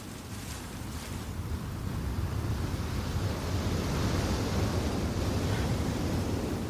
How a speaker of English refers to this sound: Is that what the sea sounds like? Yeah.